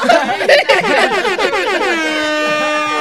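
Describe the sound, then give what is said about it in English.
A loud celebratory air horn blares, its pitch wavering and warbling at first before settling into a steady, sustained blast that runs to the end, with a bit of laughter mixed in early on. “Celebratory air horn.”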